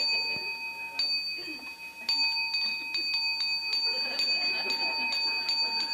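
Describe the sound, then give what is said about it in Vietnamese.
A bell is struck once and rings with a steady, sustained metallic tone that hangs in the air for the whole stretch, joined by a few faint knocks and background noise. “phải chi mà mình nói lâu lâu mình điểm một tiếng như vậy mình dặn nó nghe chuông lại nghe không”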